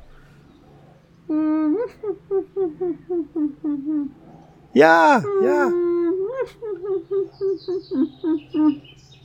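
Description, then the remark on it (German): A person imitates their own dog's muffled barking in its sleep: rapid runs of short, soft, nasal woofs, broken midway by a few higher whining yelps, fairly loud. “ich kann, ich kann meinen Hund im Schlaf nachmachen.”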